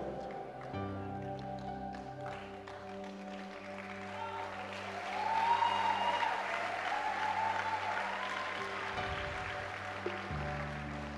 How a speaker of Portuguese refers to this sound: Pode aplaudir se você quiser.